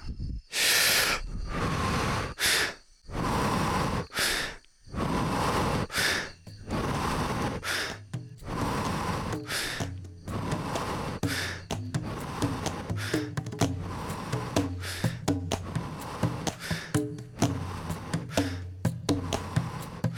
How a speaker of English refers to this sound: and you can breathe through your nose or through your mouth or both. Don't pay attention too much on the breathing technique because the most important thing is that you just do accelerated breathing. Let's start together.